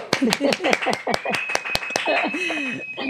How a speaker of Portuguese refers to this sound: e então deem uma salva de palmas aqui para minha convidada